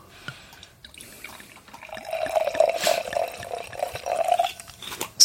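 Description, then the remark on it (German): A drink is poured into a second glass, a steady liquid stream that builds in the middle with a rising, gurgling tone, then tapers off, ending with a sharp clink. “So, dann gucken wir das erste Glas, jetzt das zweite, Atmo.”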